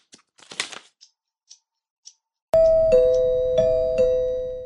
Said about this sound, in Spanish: ¿Qué es? El timbre. ¿Qué podrá ser? Voy a ver.